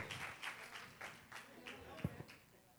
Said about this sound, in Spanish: Déjeme decirle, me quito el sombrero a los que limpian la iglesia. Denle un aplauso fuerte, Señor, por ellos, por favor, iglesia.